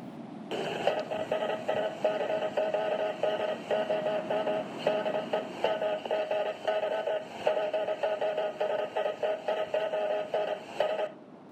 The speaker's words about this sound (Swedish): Förbipasserande fartyg kan emellanåt höra följande på knastrig radiofrekvens.